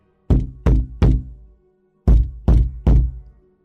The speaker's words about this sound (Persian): تمام کلبه به لرزه درآمد هری بلند شد و نشست و به در چشم دوخت یک نفر داشت محکم به در ضربه میزد